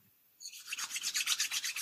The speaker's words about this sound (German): Und wenn du fertig bist oder wenn du das Gefühl hast, dass das für dich jetzt in Ordnung ist, dann reibe deine Handflächen ineinander,